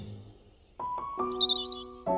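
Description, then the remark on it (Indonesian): A few quick, high bird chirps in lush natural surroundings flutter briefly in the middle, sitting over louder, ringing chime-like tones that strike several times and sustain. No voices. “akhirnya kami sampailah di tempat tujuan alam yang asri, suara burung berkicau, serta udara yang begitu sejuk membuat rasa lelah yang kurasakan beberapa jam yang lalu seakan terbayar.”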